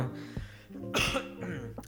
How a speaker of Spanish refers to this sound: perdón, perdón, perdón. La tos, ¿no? Que me estoy aguantando desde hace rato.